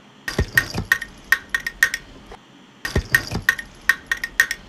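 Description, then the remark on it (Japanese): Repeated sharp knocks on a hard plastic box, fairly loud, in two quick irregular bursts separated by a short pause, each hit leaving a brief hollow ring. “なんだろうなあなんかねひたすらねプラスチックの箱を叩いてる時間があったのでそれかもしれないですね”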